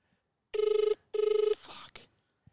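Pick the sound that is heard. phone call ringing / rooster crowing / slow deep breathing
phone call ringing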